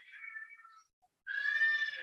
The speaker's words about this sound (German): Und meine Kinder stehen gerade unten irgendwelche, wer schreit lauter Spiele, glaube ich, oder wer kann lauter Geräusche machen. Ähm, habe ich gerade ein bisschen rausgebracht. Das war einfach so süß.